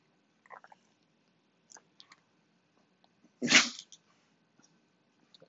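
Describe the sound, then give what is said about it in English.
A dog snuffles and nuzzles all over a person's arm with soft, scattered sniffs and small wet clicks, then one louder breathy snort or sneeze bursts out before the quiet snuffling resumes. “Oh my dog just took over my whole arm.”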